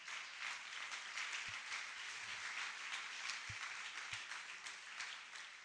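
An audience at Life Church applauding together, clapping to the Lord, a dense, steady wash of many hands clapping at once that holds at an even, fairly loud level throughout, with a few low thumps underneath.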